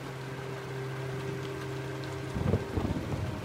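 Steady rain hisses throughout under a low hum, then a deep rumble of thunder rolls in near the end, loud and boomy, with no voices.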